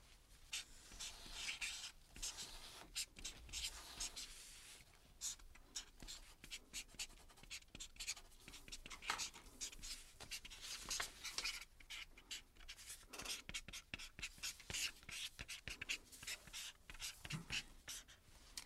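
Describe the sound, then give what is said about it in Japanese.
A pen scratches and squeaks steadily across a stiff shikishi card in short irregular strokes with brief pauses, as a novelist writes his dream for five years from now, and no one speaks. “あんまり面白い夢は書けないと思うんですけどね どうぞどうぞそちらのあの色紙にですね、えー、書いてください”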